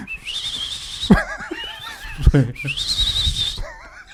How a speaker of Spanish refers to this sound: y si quiere chiflar acá fuerte, con los tres dedos, Se mete el puño. Se mete, el puño para, llamar, para llamar un taxi. Así, güey. Oye, taxi.